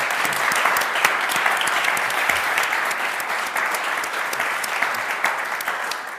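Steady audience applause, a dense wash of many hands clapping at an even, loud level throughout with scattered sharper claps, and no voices standing out.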